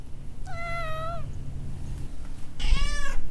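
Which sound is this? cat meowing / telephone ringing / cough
cat meowing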